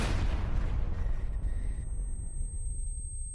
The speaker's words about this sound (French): Tout l'appartement du voisin vient d'être soufflé par une explosion de gaz. L'appartement de Francis est lui-même détruit.